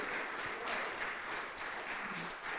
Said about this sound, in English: I want you to give the Lord a hand clap of praise right now. Hallelujah. Hallelujah.